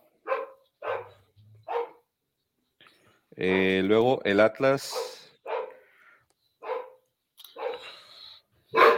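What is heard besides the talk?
dogs barking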